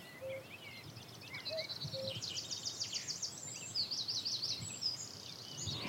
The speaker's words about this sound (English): And there's a male cuckoo calling again.